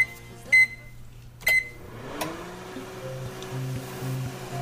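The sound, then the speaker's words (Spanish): A microwave oven switching on: two short electronic beeps and a click, then a steady low humming drone with a faint whir that carries on to the end. No voices. “A tu señal, Chomito, la microonda activa. Activando microonda.”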